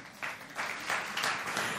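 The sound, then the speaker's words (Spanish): An audience applauds to Christ, broad crackling claps swelling in rhythmic waves, steady and moderately loud, with no voices standing out above it. “Del otro aplauso a Cristo.”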